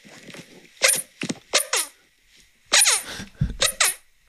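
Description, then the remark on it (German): Several short, squeaky fart-like noises made with the collarbone, coming in irregular bursts of two or three, fairly loud, with brief pauses between and no talking. “dass er mit dem Schlüsselbein furzen kann.”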